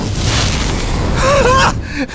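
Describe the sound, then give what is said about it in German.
Draco, a cartoonish dragon from the Magic Max world, sneezes with a short voiced gasp and burst and spits fire: a loud, steady roaring rush of fire-like noise that cuts off briefly near the end before resuming. “Wenn Draco niest, spuckt er Feuer.”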